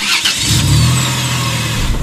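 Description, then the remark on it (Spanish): An ice cream van engine cranks and catches, then settles into a steady, loud rumble as the van drives away, with no voices. “Pero mi hermana se metió en la camioneta de helados y se fue.”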